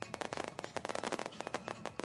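A rapid, dense barrage of fireworks filling the sky crackles and pops continuously, with many sharp bursts packed closely together at a fairly steady, loud level and no pause for the whole stretch, drowning out music.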